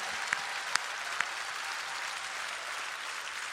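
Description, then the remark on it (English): An audience applauds steadily in praise of God for deliverance, a dense wash of many hands clapping together, with a few sharper individual claps standing out near the start and no talking. “Let's give God some praise for deliverance in here today.”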